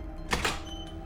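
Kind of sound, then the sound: household object, door being opened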